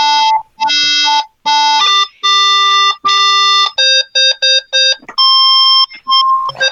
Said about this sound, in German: Okay, das ist das andere Teil, das ich zusammengelötet habe. Oder oh, Synthesizer. Ja, genau.